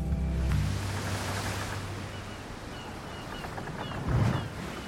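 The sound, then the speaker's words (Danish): Broad, steady wash of ocean waves out in the middle of the open sea, rolling continuously with a low swell surging up near the end; no voices, just the sea. “den første sørøverhistorie, vi har til dig, starter ude midt på det åbne hav.”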